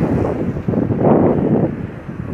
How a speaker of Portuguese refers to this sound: nosso vento também, principalmente nessa época. Quem não conhece Fortaleza sabe que tem muito vento na cidade.